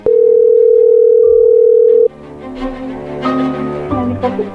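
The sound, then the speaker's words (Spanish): A loud, steady telephone dial tone holds for about two seconds while a call is placed to a doctor, then cuts off into a murky mix of tones and background noise as the call connects. “¿A quién eran la chocolata? Le llamamos. Escuchen.”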